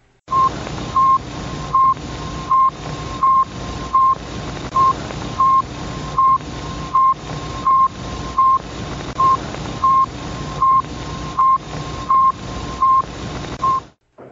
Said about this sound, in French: Et il faisait, il faisait le tour de la Terre en 98 minutes. Quel était son but? Il n'avait qu'un seul but, c'est d'envoyer un signal radio. Signal radio que je vais vous faire entendre